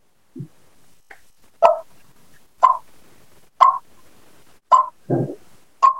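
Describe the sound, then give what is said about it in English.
A series of five or six sharp, raspy clucks imitating an Eastern turkey, made by a person on a mouth call using lips and jaw, spaced about a second apart. Each one is a short, loud pop with no talking between them. “And I'm going to do a raspy cluck, which is your Eastern.”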